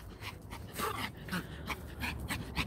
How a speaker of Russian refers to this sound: Мы тут вам, знаешь ли, это у нас просто мини-волкодав ходит.